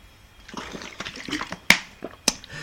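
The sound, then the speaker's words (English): Water sloshes softly in a container as it is passed over, broken by two sharp knocks or clinks as it is set down or handled, with no talking. “Can you pass me the uh, water, please?”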